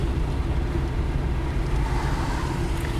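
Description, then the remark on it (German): A steady, droning rumble inside a car being driven somewhat too fast, dominated by low road and engine noise with a faint airy hiss, constant and unbroken throughout, with no voices. “Fahr zu schnell.”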